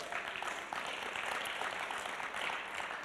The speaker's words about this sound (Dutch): Mag ik even een groot applaus, dames en heren?